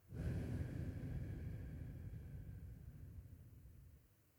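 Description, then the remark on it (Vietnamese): A slow, steady breath pushed out through pursed lips after a breath in, as if blowing, during a breathing exercise; a soft airy rush lasting several seconds that gradually fades. Fairly quiet, with no talking. “thở ra bằng miệng và mình khi mà thở ra bằng miệng thì mình dùng hơi mình đẩy qua hai cái bờ môi của mình tức là mình hơi à, chấm hai cái môi của mình lại để mình thở ra giống như mình đang thổi một cái nén đó.”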